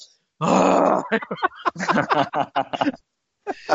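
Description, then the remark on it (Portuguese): A man's voice loudly imitates angry huffing and snorting: one long, forceful breathy blast followed by a rapid string of short grunting snorts, harsh, with no speech. “Eu, tipo, ninguém entendia se eu fosse falar inglês, então eu ficava bufando bem alto, assim, ó.”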